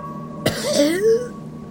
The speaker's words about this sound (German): Du erbrichst dich und musst husten.